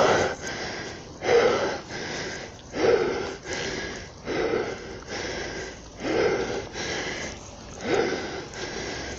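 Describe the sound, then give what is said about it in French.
Heavy, labored panting from a person cycling up a steep hill, with loud breaths repeating in a steady rhythm about every second and a half over a constant low rushing background. “Donc ce que je voulais dire, malgré mon essoufflement, c'est que non on ne sort pas avec des températures proches de zéro ou négatives, juste pour fanfaronner.”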